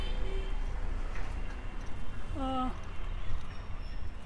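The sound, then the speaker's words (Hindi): A single brief cat meow rises out of a steady, noisy outdoor background, short and fairly clear, with no other calls before or after it; cats are roaming about everywhere. “बिल्लियाँ घूम रही है हर जगह”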